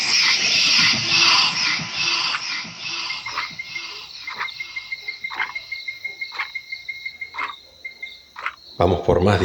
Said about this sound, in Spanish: la rana, escúchame.